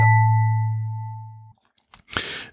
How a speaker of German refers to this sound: Ding Dong, die Regie äh, ist da.